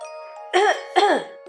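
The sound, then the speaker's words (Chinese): Two harsh, raspy coughs in quick succession as the character Pero chokes on dust kicked up by the chicks' dust bath, each a short voiced burst with a strained, throaty edge, over a faint steady tonal hum in the background. “卢茨佩罗被小鸡们扬起的尘土呛得直咳嗽。”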